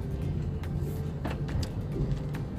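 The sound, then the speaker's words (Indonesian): Steady low rumble inside a parked car on an overcast day, with scattered soft, brief taps of light drizzle pattering on the roof and windows, no voices present. “Masih hujan rintik-rintik sih saat gue ngerekam podcast ini di dalam mobil.”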